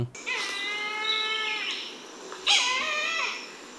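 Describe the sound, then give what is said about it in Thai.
A white-bellied sea eagle, the largest sea-dwelling eagle in Thailand, with white head and body and grey wings, gives two loud, nasal, honking calls, a longer one followed by a shorter one after a brief pause, clear with no voices. “นกออกนะครับ เหล่านี้ก็เป็นสัตว์ที่มีเสียงร้องทั้งนั้นนะครับ นกออกคืออินทรีที่อาศัยหากินในทะเลขนาดใหญ่ที่สุดของประเทศไทย ลักษณะก็คือ หัวและลำตัวมีสีขาวปีกมีสีเทานะครับ”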